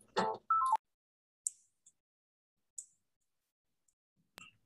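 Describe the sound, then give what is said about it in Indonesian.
A phone being dialed: a brief opening burst and tone, then a few sparse, sharp electronic clicks and beeps spaced over several seconds, with no one talking. “Ma ah, gue telepon.”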